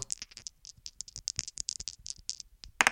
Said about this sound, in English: All right, let's do it. I'm going to roll the dice and we will get going. Here we go.